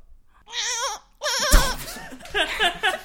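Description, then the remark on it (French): A person imitates a dolphin in an animal-imitation contest, with high, warbling squeals that waver up and down, two close bursts followed by a busier stretch of squeaky chatter, loud. “vous imiterez un animal. Celui qui, selon moi, l'imite mal ou celui qui n'arrive plus en imiter a perdu. On commence par …, le dauphin”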